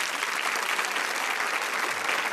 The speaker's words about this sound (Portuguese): por favor, podem aplaudi-lo.